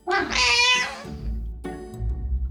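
A cat lets out a loud, drawn-out meow lasting about a second, followed by a shorter, softer second meow, both clear with no talking.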